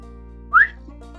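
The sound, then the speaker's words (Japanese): A single short human whistle by a young Eskimo cook, a quick rising note lasting about a tenth of a second, heard clearly over a faint steady background hum with no talking. “と口笛を鳴らした。”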